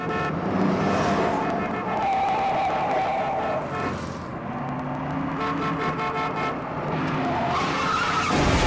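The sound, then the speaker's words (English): A loud car chase from the 1971 film The French Connection, a car chasing a train, with tires screeching in long, wavering squeals over roaring engines, the noise sustained for the whole stretch with no one speaking. “Only the chase in the French Connection doesn't involve cars. It has a car, but it's chasing a train.”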